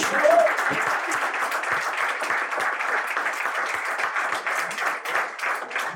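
Steady audience applause for the football club Werder Bremen: a dense wash of many hands clapping at an even, fairly loud level throughout, with a brief whistle near the start.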